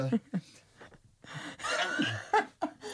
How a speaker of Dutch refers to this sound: Ja, mensen, als je iemand hoort niezen de hele tijd, ik ben het, ik heb een hooikoorts, ben verkouden